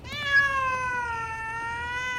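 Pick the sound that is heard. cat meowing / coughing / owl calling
cat meowing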